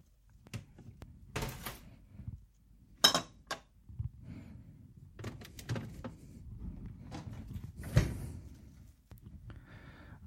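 A refrigerator door is opened and shut as mayonnaise is put inside, with soft thumps, rustling and a few bright clinks of glass jars rattling in the door shelves.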